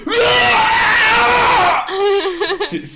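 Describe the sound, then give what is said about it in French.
A man lets out a long, loud, strained roar imitating a dragon's shout, held for almost two seconds before trailing into a quieter, wavering vocal sound. “Hein, non, j'ai fait, j'ai fait attention à crier intérieurement.”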